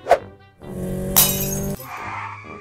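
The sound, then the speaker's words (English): An empty Snapple glass bottle, thrown into a busy street intersection in broad daylight, smashes with a sharp, bright crash, followed by a brief tinkling of scattered shards amid a steady background hum of traffic. “Michael was dared to throw an empty Snapple bottle into a busy-ass intersection in broad daylight”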